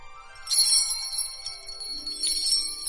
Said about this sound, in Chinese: 驼铃啊，可是开启魔法之旅的宝物。图图只要摇两下驼铃，然后大喊“出发了，敦煌”，就会有惊喜等你哦。